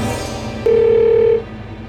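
A single steady telephone tone, mid-pitched and lasting under a second, sounds over a low, constant background hum with no talking, as a man phones an airline, Moya Royal Airlines.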